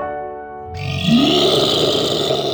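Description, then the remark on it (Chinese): An imagined dragon roar: a deep, growling roar starts with a low rumbling tone, then swells into a loud, rough, breathy bellow that holds steadily to the end, with no talking. “哦，乖乖，这一整个月当中，我们几乎都可以听到这个声音，这就是龙叫的声音。”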